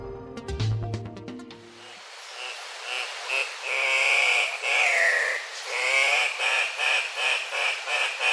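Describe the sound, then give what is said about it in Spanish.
A brief musical jingle gives way to an Andean cock-of-the-rock calling: loud, harsh, rasping high-pitched squawks repeated in an uneven series over a steady hissing background. “El gallito de roca que estamos escuchando tiene un trino poco melodioso, pero es una de las aves más vistosas que se puede observar en la zona andina de Sudamérica, lo cual lo convirtió paradójicamente en una especie amenazada.”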